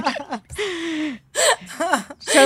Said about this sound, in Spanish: Porque estoy llorando